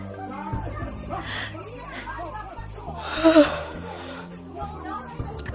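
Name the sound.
people screaming and shouting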